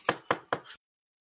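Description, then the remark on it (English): Three firm knocks on a wooden door in an even rhythm, fairly loud, each with a short hollow ring, followed by silence. No one speaks. “After straightening my stuff, I'm going to go up and I'm going to slowly approach and knock on the door”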